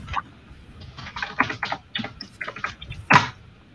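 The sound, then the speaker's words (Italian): Two small dice are rolled for a game, clattering and tumbling across a hard surface, a quick run of light, irregular clicks ending in one sharper knock, with no talking. “Quindi lancio due dadi, ce la, ce la giochiamo così.”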